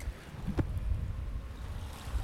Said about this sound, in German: Und ja, der Wind ist ein bisschen doof, aber dude, ich habe das eins der nicesten Mics in der Hand.